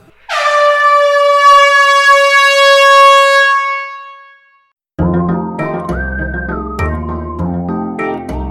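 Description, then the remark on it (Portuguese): A single loud, sustained air horn blast rings out for about four seconds and fades, followed by a burst of upbeat music. “Então pode soar a buzina, porque nosso episódio já está começando.”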